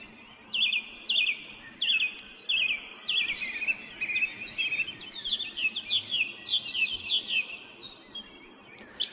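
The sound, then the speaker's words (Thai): Birds sing in a steady run of bright, high chirping phrases, repeating with brief pauses over a soft outdoor hush. No one talks. “นกนั้นมันร้องเพลง เพราะว่ามันไม่มีความกังวลอยู่ในโลกนี้ ผมอยากให้พี่น้องฟังเสียงนกร้องเพลงสักนิดหนึ่งนะครับ”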